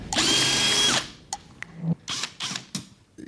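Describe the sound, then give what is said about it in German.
A power drill whirs loudly for about a second while unscrewing a large high-voltage electric-car battery at LB Systems, then stops, followed by sharp clicks and several short, rattling bursts of the tool starting and stopping. “Und dann hat er die Batterie auseinandergeschraubt.”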